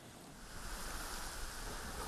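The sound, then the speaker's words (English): A steady, continuous wash of Baltic Sea waves breaking along a shoreline as the sun sets, soft and even throughout, with a faint windy hiss mixed in and no voices. “And so, as the sun sets over the Baltic Sea, our two travelers decide”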